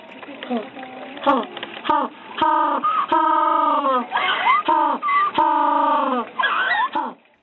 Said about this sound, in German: Und jetzt, jetzt beantworte ich noch eine Frage, die dich sicherlich schon den ganzen Beitrag über beschäftigt hat, nämlich die Frage, wie denn so ein Pinguin eigentlich klingt. Achtung, nicht erschrecken.